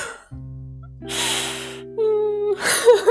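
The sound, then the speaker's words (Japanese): A woman cries, drawing in shaky, gasping breaths and sniffles between strained, whimpering voiced sounds, with two noisy sobbing bursts standing out in the short stretch. “めっちゃ泣いてる。”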